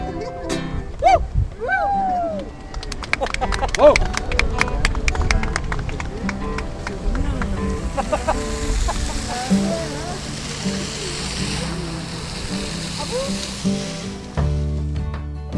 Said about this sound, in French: L'orgue de barbarie qu'on a entendu